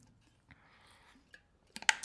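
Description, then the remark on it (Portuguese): Someone takes a quiet sip of water: a soft, faint slurp followed by a few small clicks, then a short burst of sharper, louder knocks near the end. No one speaks. “Deixa eu só tomar uma água aí.”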